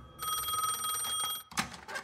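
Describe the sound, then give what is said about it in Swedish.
An old-fashioned telephone bell rings in an apartment by the Pripyat river near Chernobyl, a bright metallic trill lasting over a second, followed by a short pause and the start of a second ring. “Det ringer.”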